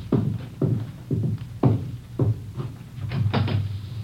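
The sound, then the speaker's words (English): Knocking on a back door: a series of firm, hollow thumps, about eight or nine in an uneven rhythm, fairly loud with no voices. “Somebody at your back door.”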